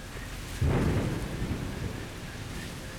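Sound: heavy rain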